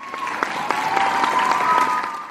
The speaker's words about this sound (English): You know, the crowd going wild.